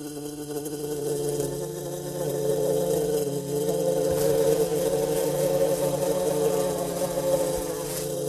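A steady buzzing of a bee or wasp drones on without pause for several seconds, holding a fairly even pitch and loudness, with no voices.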